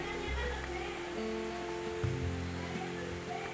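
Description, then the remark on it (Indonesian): Rain falls on the morning of Friday 30 April 2021 in a steady, dense hiss that fills the whole clip without pause, with a faint low hum running underneath. “Jumat 30 April 2021 Pagi ini diawali dengan hujan Hujan ketika kekeringan sangat menginginkan hujan”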